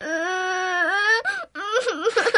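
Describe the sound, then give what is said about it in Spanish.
A woman wails loudly in a long, sustained high-pitched cry, breaks off briefly for a breath, then resumes with wavering, sobbing rises and falls. “Ella que me saluda y yo que me pongo a llorar con todas mis fuerzas.”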